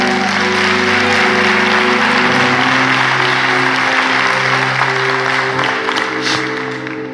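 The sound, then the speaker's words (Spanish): A church audience at Osana applauds loudly and steadily for several seconds for the tithers among them, a dense wash of clapping over sustained low musical tones, easing off slightly at the very end. “Denles un fuerte aplauso, por favor.”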